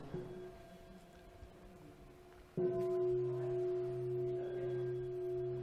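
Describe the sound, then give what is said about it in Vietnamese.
A low meditation bell rings out with a sudden struck onset, its steady resonant hum sustaining and slowly fading, heard alone without any talking; a softer lingering tone precedes the strike. “thỉnh tiếng chuông”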